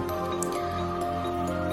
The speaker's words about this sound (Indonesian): Keran itu memang benar menyala. khususnya ada di paling pojok Aku hampiri dan aku matikan keran itu.